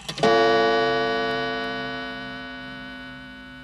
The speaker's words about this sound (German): Also, ähm, jetzt haben wir einen Schnitt wieder, einen Gong.